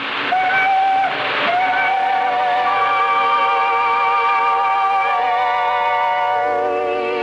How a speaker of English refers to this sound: The, the, the train is moving.